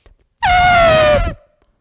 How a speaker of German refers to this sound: mach eben den Abschlussjingle noch.